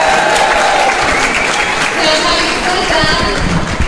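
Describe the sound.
A large audience claps steadily and loudly for several seconds, a dense continuous wash of applause with faint crowd voices mixed underneath.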